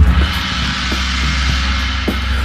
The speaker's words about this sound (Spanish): Oh, ¿escucharon ese sonido? ¿Escucharon ese gong? ¿No se sienten como en un verano interminable?